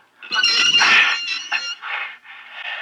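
A heavy door squeaks as it is pushed open: a loud, drawn-out, high-pitched squeal that strains and wavers through several stretches, with a brief dip partway through. No one speaks.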